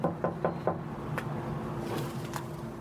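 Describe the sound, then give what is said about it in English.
Sharp knocks on the door of a maisonette in a low-rise block: a quick run of four raps, then a couple of lone, more spaced-out knocks, over a steady low hum of background noise with no voices. “No one's ever answered the door.”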